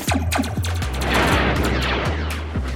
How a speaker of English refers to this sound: He was hiking and his backpack caught on a, a guy wire that was leading up to a radio tower, and he heard what sounded like a blaster sound